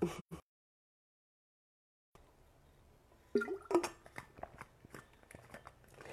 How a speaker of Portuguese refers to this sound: Vou tomar uma água aqui um pouquinho.